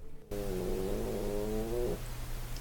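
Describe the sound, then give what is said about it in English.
A drawn-out stomach growl rises into a steady, pitched whine for about a second and a half, eerily like a cat's meow, then cuts off over a low hum. “Is that your stomach?”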